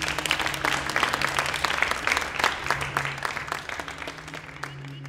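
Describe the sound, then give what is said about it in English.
An audience applauds steadily to thank a guest, a dense patter of many hands clapping at once, sustained and fairly loud over a low hum, with no one speaking. “Could you please all join me in thanking my wonderful guest today”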